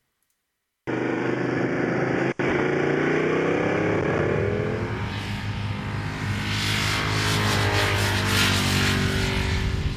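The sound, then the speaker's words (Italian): A Japanese motorcycle engine starts up abruptly and runs loud, its buzzy pitch climbing as it revs, sounding much like a 125cc scooter motor droning steadily without any talking. “Che sembra un 125 sì, sì, sì, sì sembra un Liberty che, che, che, passa, è veramente imbarazzante.”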